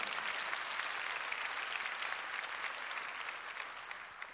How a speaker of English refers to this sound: Now, if you believe that's a good way to respond, clap your hands and praise God.